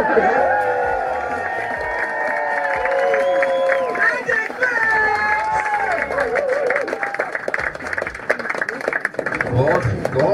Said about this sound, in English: What I'm here to do is to warm you up. Just scream, just scream, come on, scream, scream, middle class people, scream!